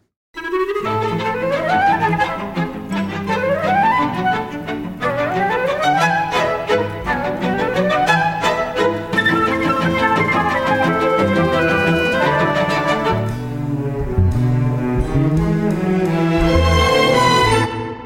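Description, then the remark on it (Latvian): The theme melody of the animated film Ratatouille plays loudly and continuously, a bright instrumental tune with rising, repeating phrases over steady lower accompaniment. No one speaks. “Vai jūs atpazināt eh, šo melodiju?”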